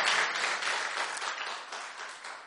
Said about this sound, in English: Put your hands together for her.